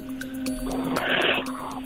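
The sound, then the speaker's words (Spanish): A person imitates a wolf howl with a steady, drawn-out vocal tone, held for a couple of seconds at moderate loudness over faint background noise. “El lobo. ¿Cómo hace el lobo?”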